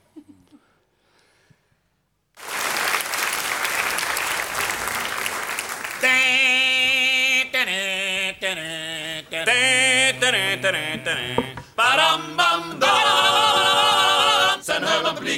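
After a quiet start, a burst of applause-like noise gives way to a loud old classic song played as a radio music break, a sustained wavering vocal melody over steady accompaniment with brief breaks between phrases.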